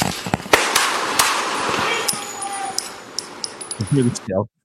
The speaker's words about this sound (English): The man opens the door through the broken back window with a handgun in his waist. They shoot the man as he tries to get in the front of the car as he would become a greater threat. Oh, he's already bleeding. He's been hit.